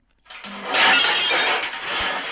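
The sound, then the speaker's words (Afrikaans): Empty tin cans tied on a rope at a vegetable garden clatter and rattle together in a loud, sustained metallic jangle for about two seconds as an aardvark pulls the rope, with no voices. “Hy kom al snuffelend en skoffelend nader aan die groentetein en toe daar trek hy die tou met die leeublikke.”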